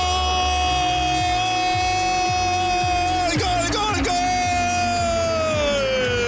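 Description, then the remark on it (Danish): A man yells 'goal' in ecstatic, high-pitched bursts, repeating the same short phrase several times like a goal celebration, his strained voice loud and sustained over steady low rhythmic pulses; a sound clip offered as a prize on a radio show. “Man får lige et smil på læben, når man hører en mand råbe goal.”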